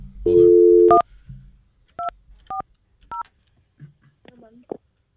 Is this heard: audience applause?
no